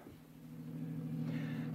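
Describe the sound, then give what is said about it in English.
A car engine hums steadily, its low drone building slightly in loudness as if pulling away, with no voices over it; a car starting and driving off after a party, around midnight. “Then I bid my host good night, got into Jack's car, and drove off.”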